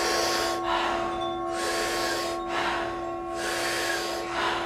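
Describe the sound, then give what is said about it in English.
Deep, forceful power breaths drawn through a round mouth in a steady rhythm during a group breathing exercise of 30 to 40 breaths that expand the lungs and belly, about four full inhale-exhale cycles, loud with a soft airy exhale after each, over a faint steady hum. “taking about 30 to 40 power breaths into the body through a round mouth”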